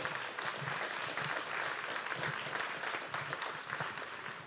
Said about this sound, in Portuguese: Aleluia, aplauda ao Senhor.